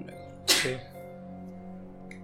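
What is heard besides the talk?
sneeze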